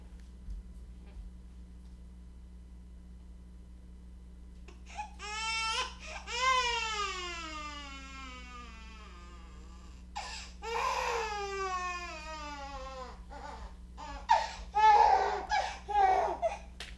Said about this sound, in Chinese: 我去看一下，有一个婴儿爆哭。